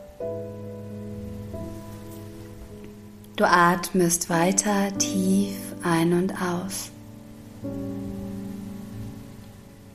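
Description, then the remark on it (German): Light rain patters softly and steadily throughout, mixed with a sustained, humming musical drone, while a calm voice speaks briefly in the middle. “Ein paar Tropfen Regen fallen noch vom Himmel.”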